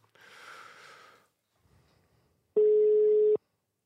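A single loud, steady telephone ringback tone from a phone call being placed sounds for just under a second near the end, starting and stopping abruptly, preceded by a soft breathy rustle and near silence.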